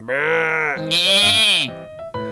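A sheep bleats loudly, two long quavering cries back to back, followed by a brief shorter bleat at the end.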